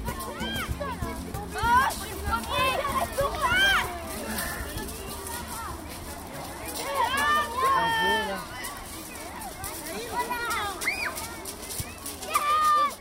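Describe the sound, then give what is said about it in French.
Children shout and chatter at a playground in the Parc de Miribel-Jonage on a Saturday afternoon, their high voices rising and falling in overlapping bursts over a steady background murmur, with occasional louder squeals. “La première éducatrice que j'ai rencontrée pour parler de son travail m'a donné rendez-vous un samedi après-midi dans une aire de jeu du parc de Miribel-Jonage.”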